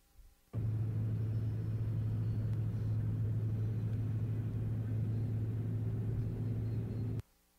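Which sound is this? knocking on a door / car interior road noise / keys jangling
car interior road noise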